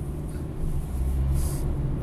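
A truck rumbles past on the street outdoors, a steady low engine drone that swells slightly partway through, with a brief airy hiss on top, no voices heard.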